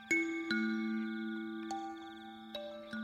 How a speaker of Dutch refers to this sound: En toen ging de bel.